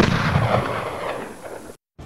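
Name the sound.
single gunshot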